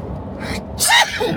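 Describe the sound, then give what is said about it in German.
A single loud sneeze, with a quick breathy inhale just before the sharp burst, then a brief trailing exhale. “Entschuldigung.”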